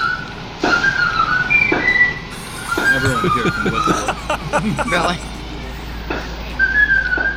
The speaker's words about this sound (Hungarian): Ezt a zenét játsza az ekvádori szemetes autó, jaj, de mirom őket. Tegyük már be valahova. Úristen. Tudod, hogy jön az szemetes. De így van, miért szomorú zenét játsza?